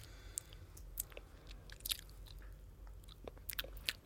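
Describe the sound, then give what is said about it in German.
Wet chewing with scattered lip smacks and small crunchy clicks while tasting a food that smells and tastes like glue, irregular over a few seconds against a low background hum, with no one speaking. “Ach, ich höre dich so schwatzen.”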